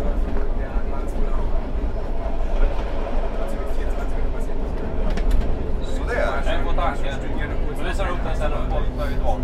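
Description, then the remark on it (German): Steady low rumble and rattle of a moving train carriage that has filled up, with every seat taken and some passengers standing, continuous and fairly loud, with a murmur of several passengers' voices chattering throughout and one voice rising briefly near the end. “Der Zug hat sich gefüllt, alle Plätze sind besetzt und manche stehen.”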